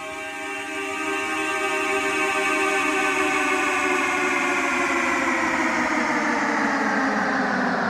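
A recorded car sound effect opening a song: a thick, droning horn-like tone with layered harmonics swells in over the first second, then holds steady and loud while its pitch slowly drifts upward.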